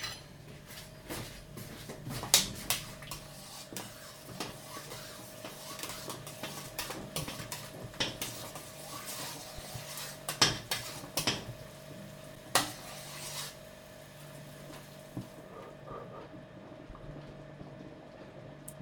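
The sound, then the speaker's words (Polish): A spoon clinks and scrapes against a pot in irregular bursts as borscht is stirred, with a steady low hum and faint bubbling underneath; no one speaks. “I zamieszam sobie teraz nasz barszcz. Chwilę sprawdzę łyżeczką jego słoność i pikanterię.”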